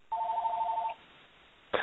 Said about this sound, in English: Oh, and ignore that. That's just my house phone. If you hear that, so.